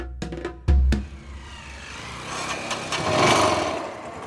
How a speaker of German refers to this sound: Mit dem Motorrad fahren die Forscher vom Ort Yangambi am Kongofluss hinein in den angrenzenden Wald.